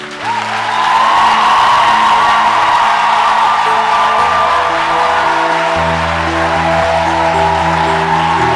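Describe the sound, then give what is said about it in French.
A church audience erupts in loud, sustained cheering and acclaim for God, with whoops and shouts over a dense roar of voices, while low sustained tones from instruments hum steadily beneath for the whole stretch. “Alors avant de t'asseoir, je voudrais que tu donnes à Dieu l'acclamation que tu n'as jamais donnée dans ta vie à notre Seigneur.”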